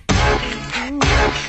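A short burst of a pop song plays loudly, with full backing instrumentation and a sung vocal line gliding through a brief pause before the music resumes.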